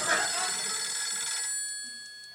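A telephone bell rings loudly in one sustained metallic burst, then cuts off, leaving a high ringing tone that slowly fades away.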